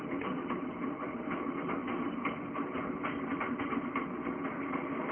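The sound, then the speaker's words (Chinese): Trams running in front of a small house, growing in number, heard as a steady, continuous mechanical rumble with a low hum and rattling texture that holds at an even loudness throughout, with no voices. “又过了不知多少时间，在小房子的门前出现了有轨电车，渐渐多起来的有轨电车。”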